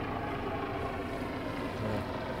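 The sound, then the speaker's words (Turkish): A helicopter drones steadily overhead, its engine and rotor noise forming a continuous, fairly loud rumble that neither rises nor fades. No one speaks. “Helikopter geçiyor ama bize Bitcoin bununla mı yağdırabiliyoruz bu, evet.”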